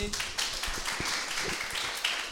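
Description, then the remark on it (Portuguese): An audience claps steadily for a group, many hands overlapping into a dense, irregular patter that holds at an even level for a couple of seconds, with no voices heard. “Vamos, vamos aplaudir, né, gente?”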